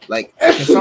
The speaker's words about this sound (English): Bless you. Bless you.